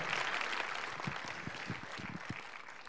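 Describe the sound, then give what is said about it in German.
Steady crowd applause for the speaker's parents, a dense wash of many hands clapping at an even level for a few seconds, with some faint low murmuring voices mixed underneath. “Winkt mal ganz kurz und gebt mal meinen Eltern einen Applaus.”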